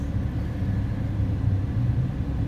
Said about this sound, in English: I was looking at this car. It was green. It pulled up. Besides, its license plate said Snot Rocket.